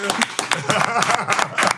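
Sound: clapping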